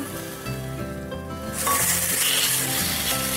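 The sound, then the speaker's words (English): Shredded chicken being lightly sautéed in a frying pan with garlic and spring onions: a steady sizzle that swells into a louder, bright crackling hiss about halfway through, with soft stirring and a low musical hum underneath, no talking. “We'll just lightly saute the chicken so that it doesn't remain raw, but we don't want to overcook it.”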